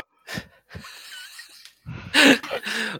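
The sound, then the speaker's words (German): A person imitates a hungry bear's roar, starting with a few breathy huffs and wheezes, then a loud, raspy growling roar in two close bursts. “Hinter uns hinter uns, einfach von hinter uns irgendwo kommt, schreit ein, ja, aus dem Dorf, ja, nicht ganz aus dem Dorf, ein bisschen vor dem Dorf, aber da schreit, schreit ein lauter Bär. Also so richtig so ein hungriges”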